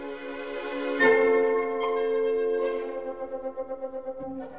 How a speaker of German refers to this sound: Im zweiten Satz, im Scherzo, kommt gleich das Glockenspiel zum Einsatz.